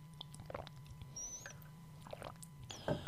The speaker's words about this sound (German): Mhm, ich trinke mal einen Schluck.